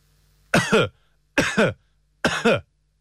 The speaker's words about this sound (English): click the microphone to start recording, cough three times, then click again to stop recording. Right. So to click the microphone, and then we have to cough three times. Let's see if we can do this now.